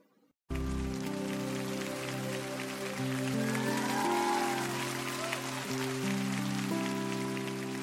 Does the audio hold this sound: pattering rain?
yes